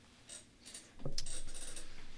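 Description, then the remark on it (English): An office chair creaks and clicks as it settles, a sharp mechanical snap followed by a rapid, rattling ratchet-like creak that continues steadily to the end, with no talking. “sorry, pause for a second while my chair settles.”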